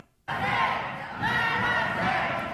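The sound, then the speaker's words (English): Armed and unarmed protesters who stormed the Michigan State House to protest Governor Whitmer's lockdown shout together indoors, a loud, dense roar of many voices chanting and yelling "let us in" at once, sustained after a brief silent start and echoing in an enclosed space. “So up on screen, I have footage of armed and arm, unarmed protesters that stormed the Michigan State House to protest Governor Whitmer's lockdown.”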